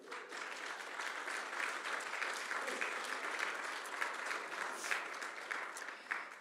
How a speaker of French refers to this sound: On peut applaudir notre groupe de louanges.